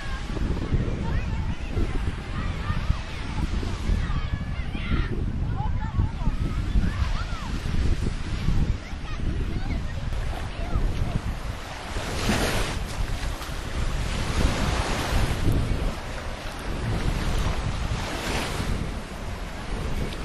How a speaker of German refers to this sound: sind wir nicht mehr im Hotel, sondern jetzt in Katwijk am Strand, tunken gerade unsere Füße in die Wellen, werden von Muscheln umspült und von Seeigeln begafft.